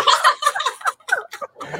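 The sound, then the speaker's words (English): Pigeons outdoors in New York make a quick run of short, throaty bursts of sound, fairly loud, bunched together with brief gaps and no talking. “So but, no, but Oh boy, you the pigeons just run amok.”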